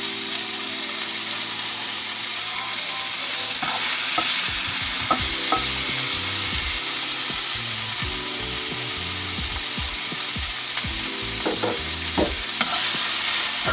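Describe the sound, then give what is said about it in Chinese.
Wagyu beef cubes sizzle in a hot pan with a steady, bright hiss throughout, while a spatula scrapes and clacks against the pan in irregular bursts as the meat is quickly stir-fried. No one speaks. “那因为它其实热蛮快的，快速的把它翻炒一下。”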